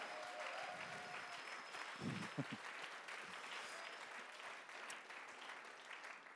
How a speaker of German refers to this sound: Und ich glaube, ihr könnt mal einen riesen Applaus für eure Pastoren geben, denn die sind der Hammer.